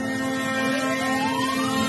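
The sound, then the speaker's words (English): A steady rumble of trucks and huge tractors rolling past in a convoy into Ottawa, Canada, with a sustained engine drone and a rising horn-like tone sweeping through, fairly loud and continuous with no talking. “It's a beautiful scene of all of these truckers and tractors making their way into Ottawa.”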